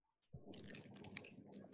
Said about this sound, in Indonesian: Ngetik tuh tangannya tuh. gue chat sama gue chat sama bini gue.